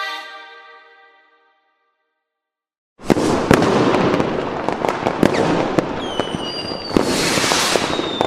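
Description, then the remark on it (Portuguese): After a fading tonal ring and a brief silence, a loud, dense barrage of red fireworks erupts before dawn, sharp crackling bursts and booms overlapping continuously, with occasional whistling streaks rising through the din. “Vocês acordam assustados com o barulho de fogos vermelhos.”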